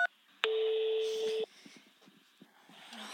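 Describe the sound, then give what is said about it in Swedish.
A short beep, then a single steady telephone keypad tone held for about a second, loud, as option three for customer support is pressed on a store's customer service phone menu, followed by faint line noise and soft clicks. “För kundsupport, mm. tryck tre.”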